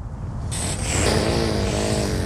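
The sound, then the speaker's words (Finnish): A swan gives a harsh, hoarse call lasting about a second, rising and falling in pitch over steady wind-like rumble. It sounds agitated, with no voices. “Siis tää on joutsen.”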